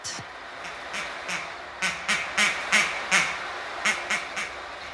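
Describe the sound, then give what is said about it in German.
A series of nasal, duck-like quacks, about a dozen in quick uneven bursts, clear over a soft hiss, produced by a sound-effect device that looks like an old air pump rather than a real duck. “Er hat noch andere Sachen, die pfeifen und schwirren und quaken.”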